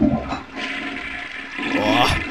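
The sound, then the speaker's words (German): A toilet flushes, a loud continuous rush of gurgling water that dips briefly, then swells again toward the end of the two seconds. “Ähm, wir, könnten, wir könnten jetzt auf die Klospülung der Woche eingehen.”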